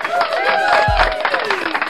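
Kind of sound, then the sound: sound effect, cheering sound effect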